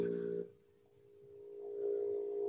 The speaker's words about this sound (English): Sounds like an air compressor. I was gonna or say an alien. yeah, aliens knocking on his door. My air compressor turns on randomly. That was an actual air compressor. It was.